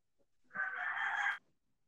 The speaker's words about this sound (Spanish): Es muy tarde, gallo, es muy tarde. ¿Para qué cantas, pinche madre?